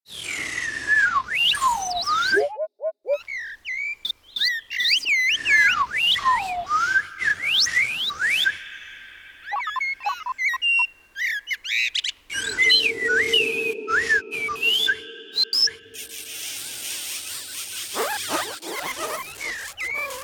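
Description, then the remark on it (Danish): Someone whistles an imitation of an owl, a run of sliding, chirping whistled calls with a brief steady lower tone, fairly loud with no talking. “Man tror, en uland vil sige u u eller... Øh, den har en speciel lyd.”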